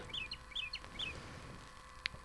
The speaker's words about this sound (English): this is … and if I'm not mistaken he used uh, Thing synthesizers to create this